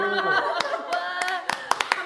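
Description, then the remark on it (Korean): Excited voices cheer and whoop in high, sustained tones as a person is introduced, while a handful of sharp, uneven hand claps break through, bunching together more quickly toward the end. “소개할 때마다 이렇게 환호해주는 네.”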